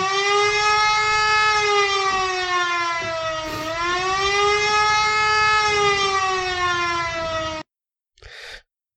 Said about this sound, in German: Dann lass uns doch noch mal kurz die Sirene auspacken. Und äh, in den Spoiler-Alarm übergehen.